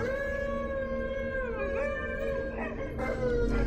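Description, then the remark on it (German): Several dogs howl together in long, wavering, overlapping tones that slide up and down in pitch, loud and steady throughout, with no one speaking. “Haltet die Hunde im Zaun.”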